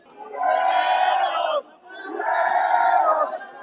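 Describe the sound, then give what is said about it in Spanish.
An angry concert crowd in Mexico, destroying the stage and stealing cables and instruments, shouts together in two long, loud roaring swells, each lasting over a second, with a brief dip between them. “y ese es el grito Toda esta ira colectiva ocasionada por la mala organización de la promotora Life Talent, la cual tiene un extenso historial de eventos fallidos,”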